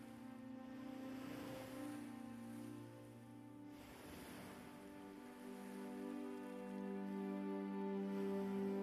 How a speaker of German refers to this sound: Du hörst, wie die Wellen gleichmäßig ans Ufer rollen, sanft brechen und wieder zurück ins Meer gleiten. Mach dir einmal bewusst, dass diese Wellen durch die Gezeiten getragen werden. Im ewigen Rhythmus von Ebbe und Flut.